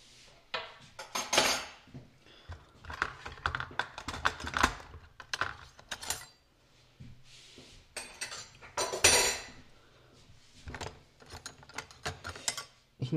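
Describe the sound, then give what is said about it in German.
The bottom drawer, holding cutlery, is pulled fully open with a long run of rattling, clattering metal as the cutlery jostles inside, mechanical clicks and scrapes rising and falling over several seconds, fairly loud, with no talking. “extra jetzt den untersten Teil komplett auf, damit ihr den vollen Umfang hört.”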